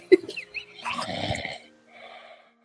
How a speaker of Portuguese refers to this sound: tá roncando muito. Todos façam silêncio.